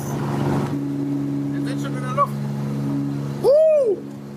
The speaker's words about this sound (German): Ja! Also ihr seid mit einem Flugzeug abgehoben.